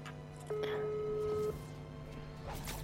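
A phone call's ringing tone: a single steady, mid-pitched beep lasting about one second, then a pause, over a low background hum and soft noise.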